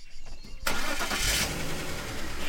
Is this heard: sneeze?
no